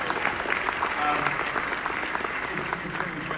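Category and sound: crowd, audience applause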